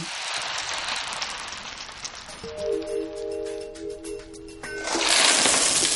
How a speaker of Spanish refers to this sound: Max toca la cortina de la puerta y las bolas caen al suelo.